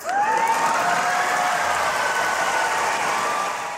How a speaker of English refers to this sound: Oh, Kamala coming with the fire. You hear the crowd? You how happy they were?